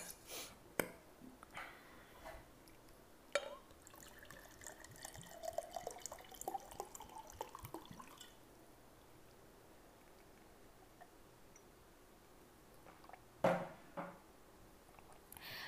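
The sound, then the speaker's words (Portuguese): Water runs from a tap into a glass of drinking water for several seconds, its pitch rising as the glass fills, with a few sharp clinks and knocks of glassware before and after; fairly quiet. “Ah, esqueci de encher minha água.”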